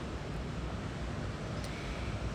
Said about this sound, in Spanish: Buenos días desde un lugar precioso frente al mar. No sé si al fondo se escucha, espero que sí, para que lo puedan disfrutar como yo.